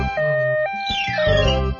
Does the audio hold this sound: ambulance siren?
yes